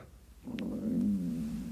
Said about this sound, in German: Ups, jetzt knurrt mein Magen. Ich hoffe, ihr habt das nicht gehört.